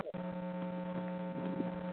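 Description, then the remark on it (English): A steady electrical hum drones through a caller's telephone line from New Jersey, low and buzzy with strong harmonic tones, continuous and unchanging for the whole two seconds with no voices over it. “yeah, there, there's a humming. There's a humming in your line.”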